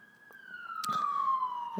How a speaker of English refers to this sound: please ignore the ambulance.